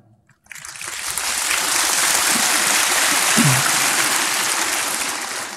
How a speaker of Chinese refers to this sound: 你们鼓掌是不是要陪我一起下地狱？